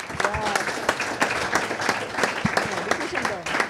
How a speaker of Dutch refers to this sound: Applaus voor de winnaar nog. Laten we nog één keer zien aan de zaal.